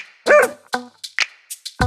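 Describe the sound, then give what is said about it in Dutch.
A dog barks several times in quick succession, a few sharp, high yips spread irregularly over about two seconds, fairly loud, with no talking. “Mijn naam is Florette en mijn hond die noemt Ragna.”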